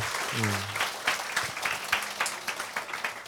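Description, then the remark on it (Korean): An audience breaks into steady applause, a dense wash of many hands clapping at a fairly even loudness throughout, with a brief low vocal sound near the start. “박수 좀 쳐주세요.”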